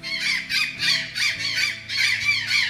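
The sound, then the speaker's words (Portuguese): An azure jay calls in a steady series of harsh, raspy squawks, about two per second, loud, with a faint low humming tone underneath. “Nossa fauna também é riquíssima, composta por animais símbolos e que infelizmente correm risco de extinção, como lobo-guará, gralha azul”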